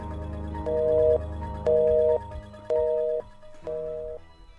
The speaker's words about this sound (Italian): Come potevano mancare le campane?